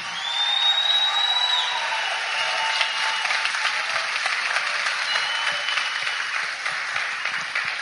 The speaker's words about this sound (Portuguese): aplauso para a palavra de Deus assim.